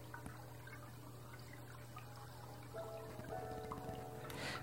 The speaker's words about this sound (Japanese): この何なんだろうやっぱりこの携帯をマイクの近くにやるとブチブチブチブチって電波の音するんですよね